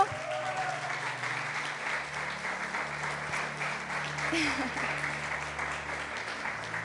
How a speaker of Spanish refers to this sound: Entonces, le damos un aplauso.